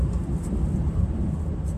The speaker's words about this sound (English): Why the hell is someone driving in the park on their truck?